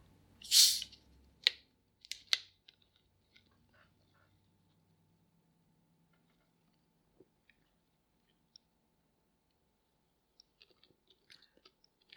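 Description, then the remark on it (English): Someone takes a sip of a Coke: a few loud, wet slurping gulps in the first seconds, followed by near silence with faint scattered clicks and tiny pops. “now, excuse me while I get a sip off of my Coke here.”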